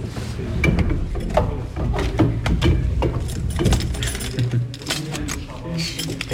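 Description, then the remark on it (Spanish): Keys clink and rattle in the old lock of the Puerta de las Armas door, which opens only a little, with a run of sharp metallic clicks and clunks from the mechanism over several seconds, while voices murmur underneath. “Eh, me gustan a mí los sonidos, como estamos en la radio, que se escuchen las llaves de la puerta de las armas, que se abren muy poquito,”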